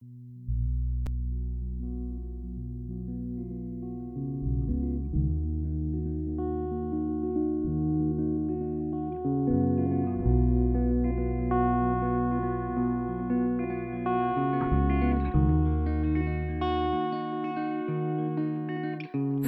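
A song plays, opening with smooth electronic synth chords and a deep bass line that shift every few seconds, staying at an even, steady level throughout with no voices.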